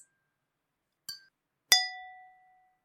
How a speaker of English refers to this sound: Let's cheers our, our drinks. Let's go ahead. All right. Cheers. Cheers.